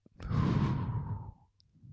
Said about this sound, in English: But that's okay, just come back to the breathing exercises. Breathe in and out.